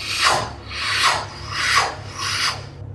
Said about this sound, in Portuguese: tem um barulho que ele parece vir do bosque. E ele é um barulho constante e ele parece um barulho cíclico, como se fosse uma roca a girar.